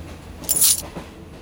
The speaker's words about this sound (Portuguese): Menina, tudo que eu tenho são essas moedas. Faça bom proveito.